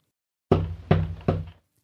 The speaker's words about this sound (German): Es ist an der Hintertür. Die ganze Familie vernimmt dreimal hintereinander ein lautes Klopfen an besagter Tür.